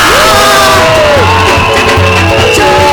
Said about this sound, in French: Poussons des cris de joie.